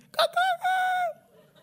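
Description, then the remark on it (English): A person mimics a rooster's crow, a loud, three-part cock-a-doodle-doo with a rising then long sustained final note, delivered alone without other talk. “You just don't like my crow.”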